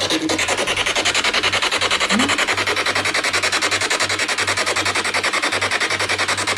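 Harsh, steady radio static from a spirit box used to search for ghosts in a house, with rapid rhythmic choppy pulses like a receiver sweeping quickly through stations, loud with a low hum underneath and no voices.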